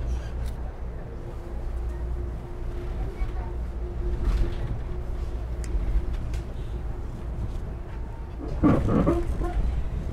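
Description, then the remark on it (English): Train carriages creak and groan over a steady low rumble as the train descends steeply through a series of tight curves between tunnels, with a sustained drawn-out tone running through and a louder, strained groaning burst near the end. “a bit of creaking and groaning, and then into the next tunnel after an amazing series of curves.”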